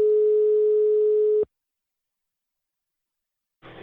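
A telephone ringback tone sounds once as a steady, clear hum lasting over a second, then cuts off into silence before a short burst of line noise at the end.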